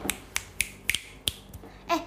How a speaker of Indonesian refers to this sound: Kan kalau orang kan manggil kucing kan pus gitu ya? Iya. Kalau kita enggak, kalau kita tuh manggil kucing kita pakai jentikan jari.